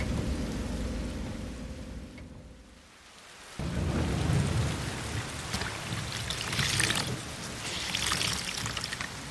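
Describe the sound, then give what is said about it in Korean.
Heavy rain pours in a steady, dense hiss with a low rumbling undertone. It briefly thins out, then returns louder and fuller, with bursts of splashing intensity and no voices. “갈수록 그 빗줄기가 굵어지는 걸 보니까 진탕이 되어서 들어오기 힘들겠구먼.”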